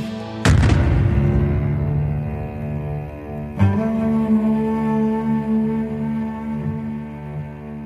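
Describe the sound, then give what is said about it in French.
A house explodes: a loud explosion bursts out and rumbles on, followed a few seconds later by a second blast, each leaving a long, droning, reverberant decay. No voices are present. “entend l'explosion. On dirait un pneu de camion qui éclate.”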